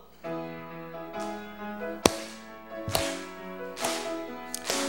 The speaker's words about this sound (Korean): 자 우리 박수 치면서 하실 때 박수를 어느 어느 넓이로 박수 칩니까? 예, 어깨 넓이로, 어깨 넓이로. 예, 공상단 박수예요. 우리 박수는. 네, 어깨 넓이로 우리 힘차게 박수하면서 우리 하나님 찬양하겠습니다.